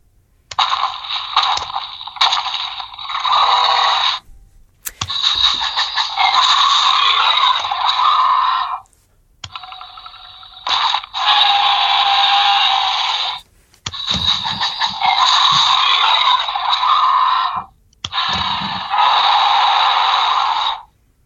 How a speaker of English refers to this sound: Like I'm looking at the speaker, and it's it's massive compared to the size of its body. Yeah, man. I I, I gotta say, this one has my favorite roars of all of them.